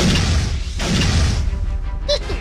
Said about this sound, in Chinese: 就在老唐万念俱灰之时，只听洞外有人敲门